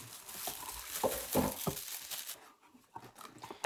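Crinkling and rustling of plastic foil packaging as a foil-wrapped pop filter is unpacked from a cardboard box, in irregular bursts with brief sharp crackles, quieting partway through before a few more rustles; no talking.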